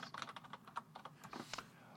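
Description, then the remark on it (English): Rapid, irregular clicking of keys on a computer keyboard, fairly quiet, with about a dozen crisp taps in quick succession and no voices, as someone types a search for hail cannons into Google Images. “after typing in Hail Cannon again, and I just i looking at uh, oh, there's a car lot right there.”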